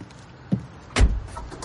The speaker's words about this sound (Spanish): Un todoterreno negro se detiene en la entrada del establecimiento. El conductor baja del vehículo y abre la puerta trasera.